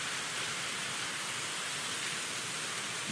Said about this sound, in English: Um, yeah, Jeff the Stamps fan says, wow, it's pouring. Yes, last day here in Florida.